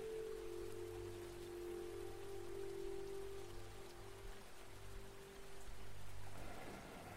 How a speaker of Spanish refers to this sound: No tiene por qué ser más el ruido de tu impaciencia, de tu intranquilidad, de tu prisa. Y puede ser a partir de hoy el ruido de ese río que te recuerda que el momento presente es eterno.